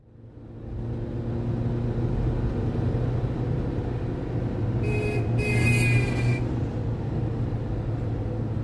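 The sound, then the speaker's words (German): A steady, dense rumble of engines from cars in a rush-hour traffic jam, with a brief bright mechanical whine cutting through midway. No one speaks. “Sie blickt auf die Uhr, die mit der Frontscheibe verschmolzen ist, und dann wieder auf die Autos vor ihr, die sich im Feierabendverkehrschaos auflösen.”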